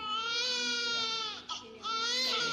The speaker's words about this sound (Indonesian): Suara bayi itu terbawa ke dalam mimpi.